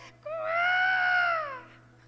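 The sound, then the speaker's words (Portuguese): A baby lets out one long, drawn-out wail at night, lasting over a second, rising slightly then trailing off, clear over a faint steady low hum. “Eu escutava a criança chorar, falei, Deus, tenha misericórdia dessa mãe.”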